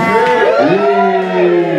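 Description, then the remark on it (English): An audience cheers and whoops together, agreeing that the speaker should run for mayor. It is a loud, sustained roar of many voices with rising and falling tones that carries on for about two seconds. “Everyone cheer you think you should run for mayor.”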